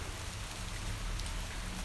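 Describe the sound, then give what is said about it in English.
Steady spring May showers at home, rain pattering down in a continuous even hiss of drops with a low rumbling undertone, fairly loud, with no voices. “Some showers, May showers.”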